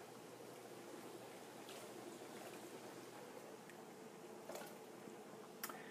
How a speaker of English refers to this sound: I'm going to take these onions and put on top of the garlic. Put a little bit of water in there, kind of water stir fry.